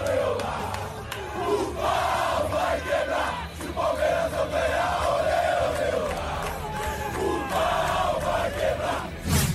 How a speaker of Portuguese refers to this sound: isso aí, com muita pressão na torcida. Isso daqui é um áudio de antes do jogo, a torcida cobrando o Palmeiras pro resultado.